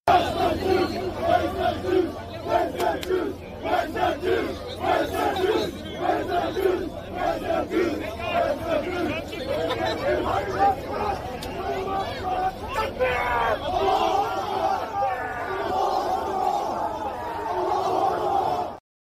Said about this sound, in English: the protesters there were not saying gas the Jews, they were saying, Where's the Jews? Now, I'll play the footage again and tell me what you hear.